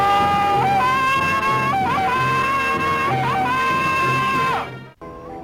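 A loud Tarzan jungle yell, a substitute for Johnny Weissmuller's original recording: one long sustained ululating cry that repeatedly flips and warbles between high and low pitches, lasting several seconds before cutting off abruptly.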